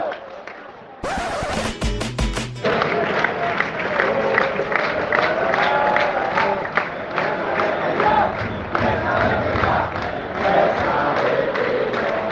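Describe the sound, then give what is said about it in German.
A huge stadium crowd of Rayo Vallecano fans chants in loud unison against the club's president, Martín Presa, telling him to go, a rhythmic, sustained roar of massed voices with sharp bursts of claps or bangs near the start, continuing steadily throughout. “Presse wette ja heißt das so viel wie Presse verpisst sich.”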